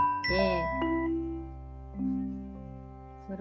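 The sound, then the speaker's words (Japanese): A soft, slow alarm chime, used to wake up in the morning, plays a few gentle bell-like tones that ring out and overlap, sustained and mellow, at a quiet-to-moderate level with no talking over it. “私はね朝あのこの音で目が覚めるようにしてるんですけど聞こえるかなそうちょっとこのゆったりとした 音でまずちっちゃくあの起きるようにしています。”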